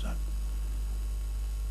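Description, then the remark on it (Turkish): An air conditioner runs with a steady, low droning hum that stays constant throughout, with a brief trace of a voice at the very start. “Şu klimayı kapatır mısınız?”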